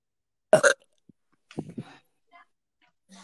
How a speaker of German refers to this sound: Einmal mal schön ins Mikrofon rülpsen, Alter.